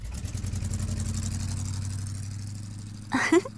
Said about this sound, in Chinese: 这个时候，朱蒂看见一位贵宾正要离去的背影，接着就听见汽车离去的声音。